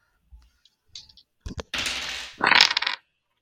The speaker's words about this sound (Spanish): Y para empezar a hablar, y haciendo honor al título del podcast, vamos a coger los dados y tirar iniciativa.